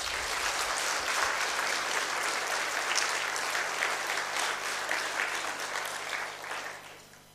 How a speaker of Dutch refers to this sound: We zouden je een applaus willen geven. Zullen we dat doen? Ja.